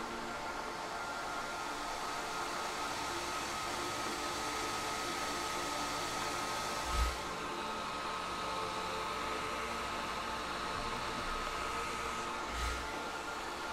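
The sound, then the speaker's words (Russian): A hair dryer blows warm air steadily, a dense, even whoosh with a faint whining tone running through it, broken by two soft low thumps partway through, as a hairdresser styles hair, twisting strands with a brush under the airflow. “Волны теплого воздуха накрывают голову и плечи.”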